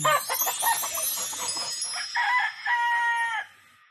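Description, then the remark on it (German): A rooster crows loudly, a long drawn-out call near the end, preceded by a busy stretch of clucking, with no one speaking. “Und dann äh, Kikeriki, oder?”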